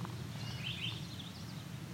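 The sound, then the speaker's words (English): Songbirds, a common yellowthroat and a song sparrow, sing at the same time: thin, high warbled phrases over a steady low outdoor rumble. “That was a throat and a song sparrow both same time there.”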